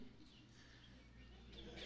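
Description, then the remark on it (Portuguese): Faint, high-pitched whistled chirps, apparently people imitating birds, come in brief scattered bursts over a low steady background hum, with no clear speech. “Alguém sabe imitar um pássaro aí?”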